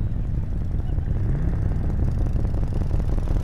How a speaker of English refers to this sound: The angels decided to run their bikes right through the center of the crowd from the back forward over the hill. This is … of the …. You could see like 70 or 100 motorcycles coming over the hill.